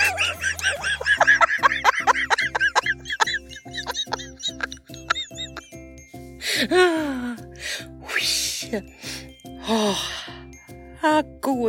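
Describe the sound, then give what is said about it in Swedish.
A voice makes high, squeaky creature noises, chirps, gasps and warbling squeals, imagining how trolls and mythical beings might sound, over a steady, rhythmic pulsing beat that runs underneath throughout. “det ju det här med väsen och troll, hur de kan tänkas låta. Jag ska låta fantasin flöda här.”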